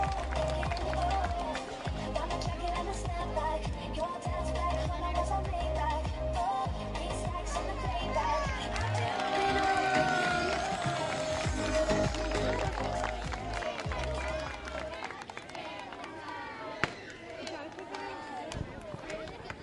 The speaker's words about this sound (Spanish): Muy fuerte aplauso ahora sí para el Club Olímpico Constitución.